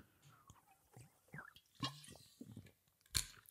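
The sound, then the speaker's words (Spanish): Quiet mouth sounds of someone taking a big, dramatic swig of Vichy Malavella sparkling mineral water: a few wet gulps and swallows in sequence, ending with a short, sharp breathy burst. “Y voy a hacer un trago dramático de Malabella, de Vichy.”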